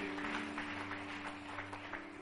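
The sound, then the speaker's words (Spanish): An audience applauds to the Lord for the preacher's children, a dense wash of overlapping claps held at a steady level over a low sustained hum, with no voices standing out. “Dale un aplauso al Señor por ellos.”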